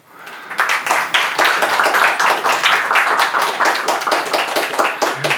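An audience breaks into applause, a dense, steady wash of many hands clapping that swells quickly after a faint start and stays loud throughout, with no voices heard.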